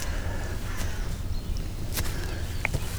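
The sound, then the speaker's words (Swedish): Crows give a few harsh caws as they mob an eagle owl, over steady outdoor wind and rumble. The calls are faint and spaced apart, with a short higher chirp near the end. “Kråkorna var med. Ja. emot den.”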